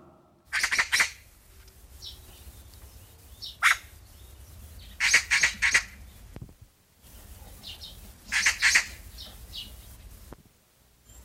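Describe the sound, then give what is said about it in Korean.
A magpie chatters in loud, harsh bursts of rapid rattling calls, repeated several times with short pauses, over a faint outdoor background with no talking. “까치죠. 네. 반가운 까치입니다.”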